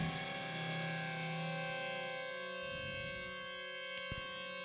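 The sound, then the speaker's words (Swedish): Sustained, distorted guitar feedback rings out in steady howling tones as the outro of the last song, faded out manually, holding loud and even with a brief sharp click near the end, and no voices. “Rundgångsutro, det fejdar vi manuellt här.”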